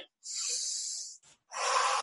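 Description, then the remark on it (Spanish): Two forceful, breathy exhales demonstrating forced breathing, the first a long hissing rush of air, then a brief pause and a second loud, rough blast of breath, with no talking. “y exhalar fuerte, yo voy a empezar a respirar mucho más volumen de aire y esa respiración forzosa va a tener un efecto nocivo en nuestro cuerpo.”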